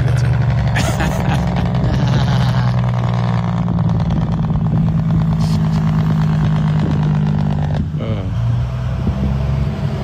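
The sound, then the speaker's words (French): A truck engine idles with a loud, steady low rumble and a deep humming drone, its pitch shifting slightly as it revs briefly near the end. “mais euh, tu sais, euh, tu parlais tantôt le jeune quand tu y fais tirer flûte, mais quand tu prends de l'âge un petit peu, là, c'est surtout ça que t'aimes d'un truck.”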